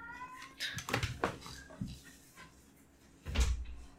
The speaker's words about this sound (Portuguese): O gato tá maluco aqui, miando.